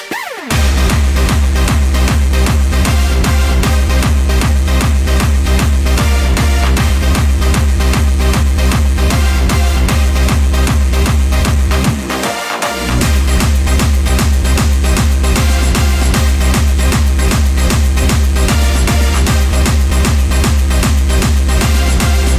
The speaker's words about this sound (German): Bisschen, geiler Track, Alter, geiler Track, Alter. Bisschen auch zum Runterkommen hier.